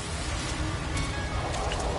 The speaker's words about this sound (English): I feel like the uh, the rain is gonna kill me before I reach the deposit.